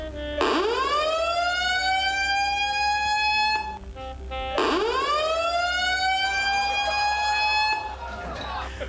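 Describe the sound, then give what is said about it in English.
A loud fire alarm wails in two long rising sweeps, each climbing sharply and then holding a steady, piercing tone before briefly cutting off and starting again. “And, well, anyway, the fire alarm was going on, so, so I knew I, I knew something.”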